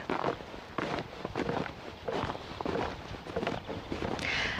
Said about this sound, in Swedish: Det här ljudet du hör är mina fotsteg när jag går omkring på en gammal husgrund. En husgrund som ligger på gården där jag växte upp, i Pirilö utanför Jakobstad.